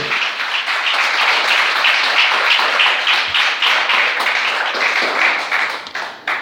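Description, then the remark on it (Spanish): An audience bursts into sustained applause for the Lord, a dense, steady roar of many hands clapping at once that holds loud for several seconds before tapering slightly at the end. “Denle el aplauso al Señor esta noche.”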